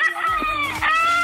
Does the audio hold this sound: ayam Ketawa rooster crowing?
yes